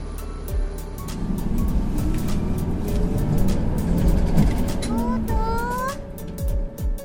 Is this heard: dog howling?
no